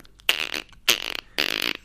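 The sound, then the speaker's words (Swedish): Someone imitates a dolphin with three short, high-pitched chattering squeals, each a rapid buzzy pulse train, with brief pauses between them. “Fan, hur låter en delfin?”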